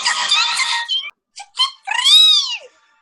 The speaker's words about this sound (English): Let's see if I can pull up a Togepi sound so that.